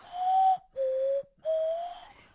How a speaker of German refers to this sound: Na klar, so klingt eine Nasenflöte gefällt mir, das hat doch was. Es ist irgendwie etwas Besonderes.